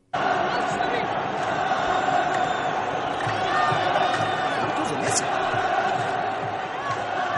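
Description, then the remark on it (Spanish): A stadium crowd in Saudi Arabia chants Messi's name and shouts together in a loud, steady roar that holds for the whole stretch, with a brief sharp whistle cutting through near the end. “y al final del mismo, ya muy molesto porque crecían los gritos, estuvo a punto de arrojar su gafete de capitán, patea un balón de mala manera, sale descompuesto de la cancha y escuchamos algo de ese momento que se ha hecho por demás viral”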